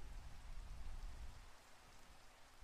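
Steady rain falls without pause, a soft, even hiss of drops spread across the whole sound, fairly quiet and continuous with no voices or other noises.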